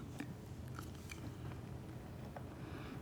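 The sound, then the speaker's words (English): Quiet chewing of a communion wafer during communion, with a few crisp, irregular bites and soft crunches over a low, steady background hum. No one speaks. “Take the bread or wafer, and as you eat it, hear this promise from Jesus the body of Christ broken for you.”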